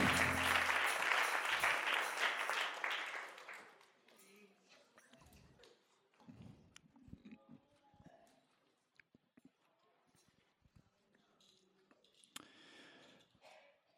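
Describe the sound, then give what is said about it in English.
A church audience bursts into loud, sustained applause to the Lord for a few seconds before being seated, then the clapping thins out and fades into scattered rustling and a few quiet voices. “Clap your hands to the Lord one more time before you're seated.”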